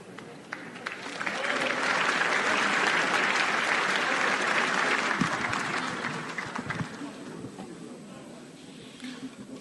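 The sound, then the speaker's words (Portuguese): Sustained audience applause at a ceremony for Lula, who was moved and cried at the start of his speech: many hands clapping in a dense, steady wash that swells quickly, holds loud for several seconds, then gradually tapers off. “presidência da República, no comecinho das palavras aí do discurso Senhoras de Lula, senhores, ele se emocionou, chorou e foi aplaudido pela plateia.”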